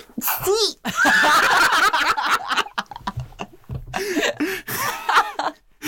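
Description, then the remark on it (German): A sneeze sound effect, used in place of a censoring bleep, drops in over a lively stretch of voices, with laughter and snickering around it. The sneeze is loud, cutting across the chatter like a bleep. “Jetzt muss ich kurz ausschreiben, der Nieser muss wo der Piep rein. ist, der Niespieps.”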